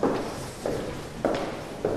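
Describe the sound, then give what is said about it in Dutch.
Steady footsteps walk along a hard floor in a very long indoor corridor on the way to an event space, four even strides in about two seconds, fairly clear with a slight hollow, echoing tone. “Nou, we kunnen even nog naar de eventruimte lopen. Er is een hele lange gang.”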